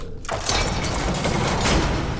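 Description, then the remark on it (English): The right-hand one of two pull-chain levers is pulled and a door mechanism grinds open behind the bars, a loud, steady rumbling scrape with a brief quiet start before the noisy grinding sustains for about two seconds. “All right, that opened a door behind the thing, so we're gonna try the left one.”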